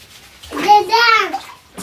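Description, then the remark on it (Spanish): In a bath, water is poured over a child's head to wash it, splashing down for about a second while the child lets out a rising and falling squeal over the pour. A brief voice follows. “A ver, ponte para allá, que te echo agua. A ver. ¡Hala! A ver, a lavar la cabeza.”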